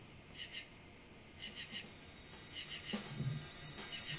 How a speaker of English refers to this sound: I'm gonna smash that fucking cricket.